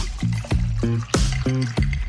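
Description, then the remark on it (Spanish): Tonic water pours into a glass over a measure of Branca Menta, filled to the top with a little foam. It makes a series of quick gurgling glugs and fizzy splashes in a steady, uneven rhythm. No one speaks. “Tónica hasta arriba. Un poquito de espuma y listo.”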